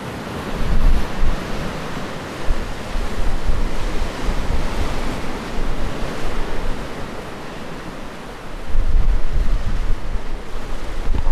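Strong wind roars steadily outdoors on an island, buffeting the microphone with low rumbling gusts that swell louder near the start and again toward the end, mixed with a surf-like wash. No one speaks.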